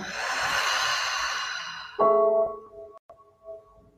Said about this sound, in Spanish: Inhala largo y profundo. Exhala por la boca.